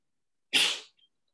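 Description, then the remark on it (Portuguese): A single sharp sneeze bursts out, a quick explosive blast that fades within half a second, followed by a faint tiny sniff and then silence. “Saúde”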